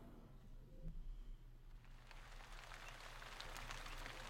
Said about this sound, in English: a fine rain began to fall.